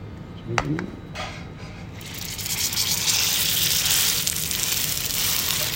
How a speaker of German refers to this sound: Gut, also das heißt, man tut es rein, wenn es richtig brutzelt, weil man es ja scharf anbraten will.